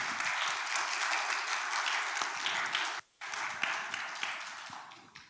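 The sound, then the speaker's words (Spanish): Sustained applause from a crowd clapping for Christ, a dense bright wash of many hands clapping that holds steady, breaks off for a split second, then resumes and slowly thins toward the end. “Dele un aplauso a Cristo en el nombre de Jesús.”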